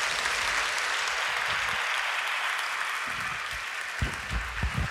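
Loud, sustained audience applause, a dense wash of many hands clapping steadily throughout, with a few sharper bursts near the end and no speech over it.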